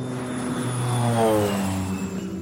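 A steady, droning airplane engine hums loudly overhead, its tone swelling slightly and shifting in pitch as it passes, with no voices present.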